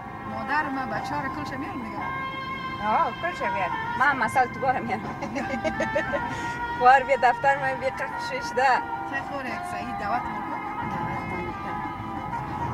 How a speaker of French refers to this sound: Alors là, on est dans la voiture